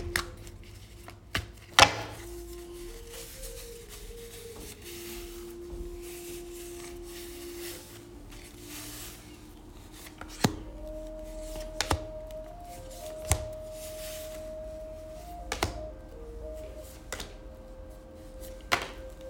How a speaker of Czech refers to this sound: já už se dívám na vaši fotku, míchám u toho karty a my se spolu podíváme, co nám ta odpoví o vás dvou. Tak moment.